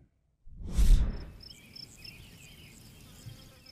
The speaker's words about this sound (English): Grasshoppers are out, and they can certainly become an annoyance for you personally. But in crops and pastures, they could become a threat to your bottom line.